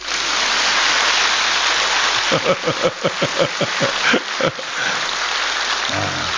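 An audience at a Buddhist dharma talk applauds in a dense, steady wash of clapping, which then breaks into a run of about a dozen sharp, rhythmic claps in unison before fading out.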